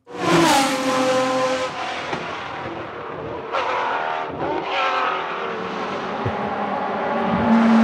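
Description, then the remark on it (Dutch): A loud, high-pitched 12-cylinder race car engine screams and revs continuously, its pitch climbing and dipping through gear changes and downshifts, with no voices present. “En die 12-cilinder motor, hè, die... die eh, ja, komt-ie.”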